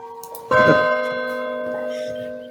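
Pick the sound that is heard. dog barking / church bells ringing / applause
church bells ringing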